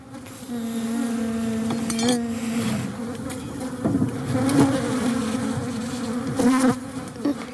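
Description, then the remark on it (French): A bee buzzes steadily and close, its drone rising and dipping in pitch as it moves around, with brief louder swells near the microphone. “Quels insectes tu veux nous parler L'abeille.”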